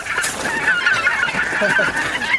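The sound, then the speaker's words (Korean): A flock of wild geese by a river honking loudly and continuously, many overlapping nasal calls forming a noisy, steady din with no speech. “저기 보이는 게 뭔지 아느냐? 거위 아닙니까요? 그래, 야생 거위지.”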